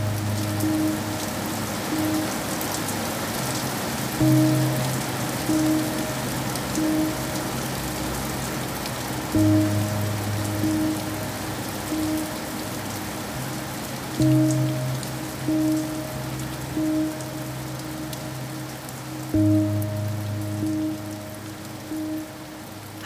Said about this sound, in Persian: قبل از اینکه بیشتر از این از این بارون زده بشیم چراغ ماشین تو روشن کن بریم سمت خونه